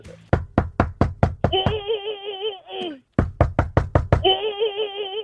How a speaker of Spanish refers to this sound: y viene alguien te molesta, te toca la puerta y entonces.